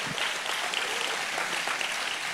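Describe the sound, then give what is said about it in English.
An audience claps steadily for Jesus, many hands blending into a dense, continuous wash of bright, crackling applause that holds at an even loudness throughout, with no voices rising above it. “Let's clap for Jesus five minutes, five seconds.”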